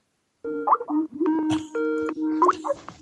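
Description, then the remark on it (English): A bright, bubbly Skype call ringtone plays a quick run of melodic tones, fairly loud, filling about two and a half seconds without any talking over it. “I think um, someone's Skype is ringing now.”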